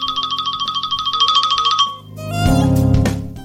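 An iPhone ringtone preview of the "Trino" tone plays alone: a fast, repeating high trilling chirp pattern for about two seconds, then a brighter, fuller electronic melody swells in, clear.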